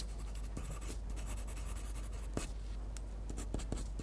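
Continuous scratchy strokes of a pencil tip moving across paper, a steady dry rasp broken by a few sharper taps as the stroke changes direction, with no voices.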